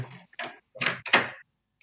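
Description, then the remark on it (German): A door opens as a delivery arrives, with a series of rustling, scraping bursts, four close together over about a second and a half, then a faint click as it settles. No voices. “An der Tür.”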